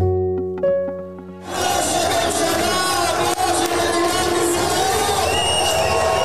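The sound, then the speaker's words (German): A large crowd erupts into loud cheering and whooping after a brief quieter musical lead-in, the roar sustained and dense for several seconds, at Benjamin Netanyahu's election campaign headquarters in Jerusalem at night. “Jubel in der Wahlkampfzentrale von Benjamin Netanyahu in der Nacht in Jerusalem.”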